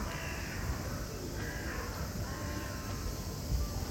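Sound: crow cawing repeatedly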